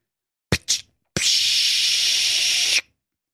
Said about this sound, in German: Und auf einmal, wie von Geisterhand, öffnete sich die Bustüre mit einem lauten Zischen.